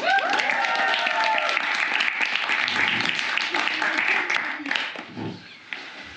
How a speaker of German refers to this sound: Hier sind auf der Bühne nochmals die Looney Tunes, Looney Loonisi. Applaus!